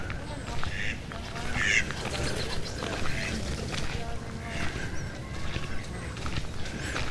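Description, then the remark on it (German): Turkeys gobble and ducks call amid a noisy, continuous din of poultry calls in a poultry enclosure, with a few sharper cries standing out near the start over a steady background clamor. “Das sind Truthühner.”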